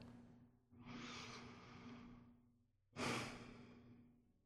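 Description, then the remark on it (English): A slow, deep breath drawn in and let out, a long airy inhale followed by a stronger, rushing exhale with a soft sigh-like quality, no talking. “Take a breath.”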